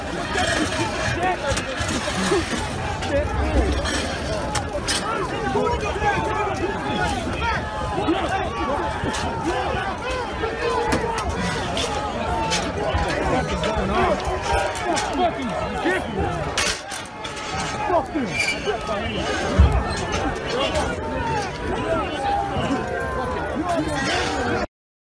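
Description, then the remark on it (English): Dense, chaotic crowd noise of protesters as police try to push them back from the Lower West Terrace: many overlapping shouting voices and a constant roar of commotion, with occasional sharp bangs and surges as people jostle and yell. “Po- police, police attempt, attempt to-, to-, push back protesters from Lower West Terrace”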